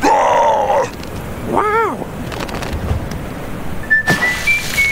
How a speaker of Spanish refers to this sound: Lo que sí, el ruidito de don Spice, el silbidito, me parece extraordinario. Buenísimo. Eso sí hay que reconocérselo.